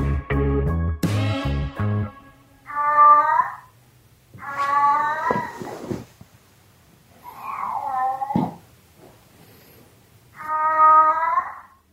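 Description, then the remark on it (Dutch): A domestic cat meows four times, each a drawn-out, wavering cry with pauses between, clear, after a short burst of low tonal, music-like notes at the start. “Waarom heb je het geluid van je kat, die nu overigens naast ons ligt en naar ons zit te kijken?”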